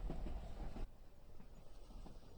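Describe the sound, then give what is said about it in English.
A train rumbles and rattles steadily, with creaks and clattering in the low, continuous noise. It's loud at first, then drops to a quieter, ongoing judder. No one speaks. “The creaking and bobbing of the train keeping me awake.”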